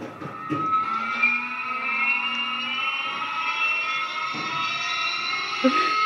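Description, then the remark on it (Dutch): A recorded sound file of a test-model motorcycle engine played back through a small phone speaker, a thin, steady high-pitched whine with rising overtones that sounds tinny, like a toy car or a jet fighter, lasting several seconds. “Klinkt als een speelgoedautootje. Zo zou je het ook kunnen noemen inderdaad, ja. Of als een straaljager, Ze klinkt het ook wel een beetje.”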